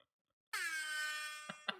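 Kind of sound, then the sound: signal or alarm, air horn blast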